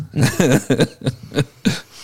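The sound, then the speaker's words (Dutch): A man coughs in a quick series of about six rough, throaty bursts, fairly loud, with short gaps between them and no talking. “Want die ging hoestend naar huis.”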